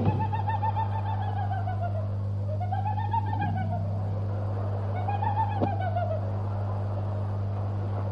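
Three drawn-out, arching calls from a southern lapwing (tero) rise and fall one after another in the countryside, over a steady low mechanical hum, with quiet gaps between them and no talking.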